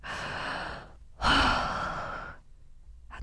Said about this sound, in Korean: 그럴 땐 심호흡을 크게